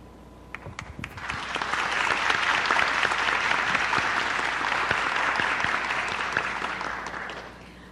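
An audience breaks into applause, a dense, steady wash of many hands clapping that swells after a few scattered claps and holds for several seconds before tapering off.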